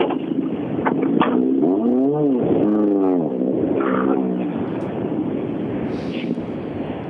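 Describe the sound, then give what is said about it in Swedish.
A Volkswagen Golf 3 car engine, owned by Roine Björk, revs up and back down a couple of times, a loud rising and falling whine over a steady rumbling drone, with no one talking. “Så då, nästa bil Den här fina Golf 3 som Roine Björk har.”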